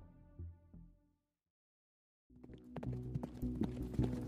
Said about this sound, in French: sur un cheval lancé au triple galop dans la campagne flamande, était juché un Renaud des Mazis furibond.